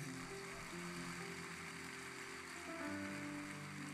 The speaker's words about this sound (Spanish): Dale un fuerte aplauso al Señor.